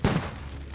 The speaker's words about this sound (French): Il peut entendre les explosions en pétarade semblant provenir de l'intérieur de la maison. Il connaît ce son. C'est de la dynamite.